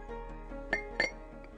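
A glass cup of water clinks twice in quick succession as someone tips their head back to drink from it: two bright ringing taps about a quarter second apart, with faint soft handling sounds around them and no talking.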